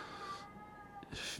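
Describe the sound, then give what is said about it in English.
A pet cat lets out a long, drawn-out meow in the background, fairly quiet, trailing off before a short rustling burst near the end. No one speaks. “You might be able to hear my cat in the background meowing like crazy.”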